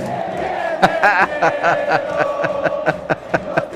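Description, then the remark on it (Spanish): A large crowd of football fans in Guadalupe roars and chants together, voices blending into a loud, steady din with rhythmic sharp claps or shouts punctuating it, excited fans cheering wildly for their team. “Ahí podemos escuchar a todos los fanáticos vueltos locos con la planadora, con el glorioso.”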